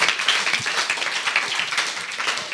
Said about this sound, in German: Come also, on, ein Applaus für